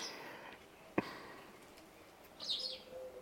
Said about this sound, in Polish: Moim zdaniem z ptakami jest przesada już trochę, no. Jakbyś trzy poziomy niżej je dali.